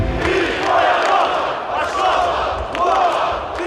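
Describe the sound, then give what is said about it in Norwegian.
Tens of thousands of protesters in red and white chant in unison in the streets of Belarus's capital on a Sunday, demanding Alexander Lukashenko step down. Rhythmic shouted phrases rise and fall in roughly one-second waves over a dense, loud roar of many voices. “Tens of thousands of protesters flooded the streets in Belarus's capital on Sunday in red and white, demanding leader Alexander Lukashenko to step down.”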